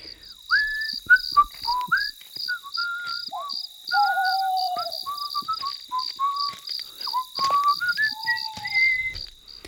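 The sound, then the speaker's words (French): A person whistles a bouncy Final Fantasy video game melody in short, lilting phrases, clear, while a steady, rapid insect chirping pulses in the background throughout. “Il marche dans les allées, une boîte à outils à la main, et il sifflote.”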